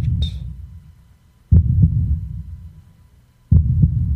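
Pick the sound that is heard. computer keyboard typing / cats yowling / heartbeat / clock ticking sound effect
heartbeat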